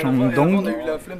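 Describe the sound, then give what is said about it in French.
A group of students shout and call out as they pass by on a street at the start of the university year, their raised voices loud and overlapping for a brief moment. “Donc voilà, on entend des étudiants crier qui passent à côté de moi.”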